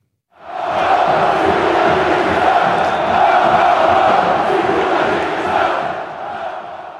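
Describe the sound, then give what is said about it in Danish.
A large football crowd roars continuously during rioting in southern Brazil on a Saturday, after a derby match Internacional won 1-0 over Grêmio: a dense mass of shouting voices sustained at high volume for several seconds, sounding agitated and chaotic rather than celebratory. “Det her, det er lyden af en omgang ballade, der udfoldede sig i det sydlige Brasilien i lørdags.”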